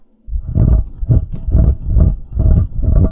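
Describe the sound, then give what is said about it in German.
Someone scratches and rubs right on a microphone in about six rhythmic, loud strokes, mimicking a dog pawing at something. No one speaks. “Du hörst, wie der Hund am Mikrofon kratzt?”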